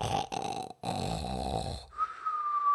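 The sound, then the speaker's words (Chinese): Loud, rumbling snoring from someone lying in bed with a quilt over his head: a short snort, then a longer raspy snore after a brief pause, followed by a thin, steady whistling exhale. No one speaks. “呼噜呼噜的打起鼾来。”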